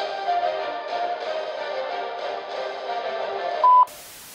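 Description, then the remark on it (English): A steady, muffled telephone-line drone runs for a few seconds before a single loud, short answering machine beep sounds, followed by an abrupt switch to flat hiss. “Please leave your name and message after the beep, and we shall return fire at our earliest convenience.”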